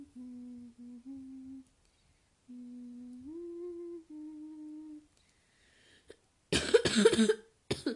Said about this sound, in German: oh, ich habe ein bisschen Husten, Leute. Ein bisschen ist es vielleicht nicht, aber egal.